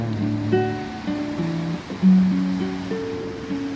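A steady hiss of ocean waves washes underneath sustained, stepping musical notes, with the surf sound continuous and fairly soft beneath the melody.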